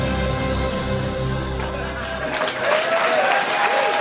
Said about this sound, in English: They're applauding out of confusion.